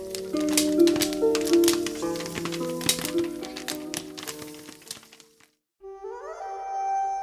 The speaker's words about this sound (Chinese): 他们家家户户打开门窗，把晒干的玉米粒放在油锅里，玉米粒噼噼啪啪的炸开了花。